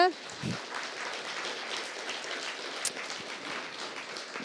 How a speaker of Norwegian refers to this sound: Nå, ja, de vil klappe.